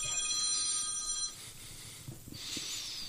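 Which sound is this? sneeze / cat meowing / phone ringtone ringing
phone ringtone ringing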